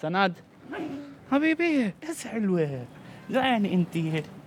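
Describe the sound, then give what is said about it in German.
Several mangy stray street dogs bark and yelp in short, overlapping bursts, loud, with high-pitched whining cries mixed between the barks. “Räudige Straßenköter, für die keiner ein Herz hat”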